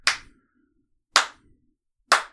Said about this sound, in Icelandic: slow clap já bara þú veist wow.